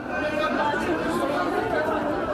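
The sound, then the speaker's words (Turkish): A dense, steady crowd murmur of many overlapping voices, loud, with no individual words standing out, as a crowd rushes into a store in Sivas, Turkey, that announced a 70% discount. “%70 indirimi duyan mağazaya akın etti.”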